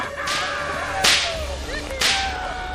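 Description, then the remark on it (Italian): Three sharp whip cracks land about a second apart, each a loud, bright snap with a hissing tail, over a steady background hum with no one speaking. “Siete pronti con le fruste? Fatele cantare allora!”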